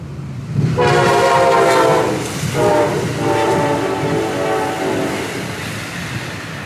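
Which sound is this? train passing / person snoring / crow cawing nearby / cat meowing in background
train passing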